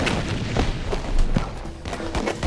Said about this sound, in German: 3. Oktober 1941, Venica, Russland. Beobachtung lässt darauf schließen, dass die Kugel direkt links von mir einschlagen wird. Ich ducke mich also nicht.